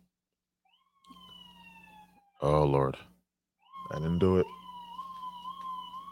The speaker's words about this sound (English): Oh, that's the that's the ambulance. That's EMS.